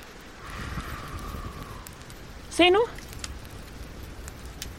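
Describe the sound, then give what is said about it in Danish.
A small campfire of dry kindling and paper, lit with matches, crackles and hisses steadily outdoors, with scattered sharp pops over a constant rushing background, and a person speaks briefly partway through. “Vi har lejrebål her.”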